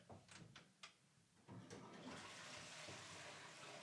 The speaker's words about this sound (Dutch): Sterker nog, we zitten echt naast de badkamer. Ik ga eens even kijken wat er gebeurt als ik nou... Wacht even hoor. Als je even doortrekt, wat doe je? Als doortrek, even even kijken.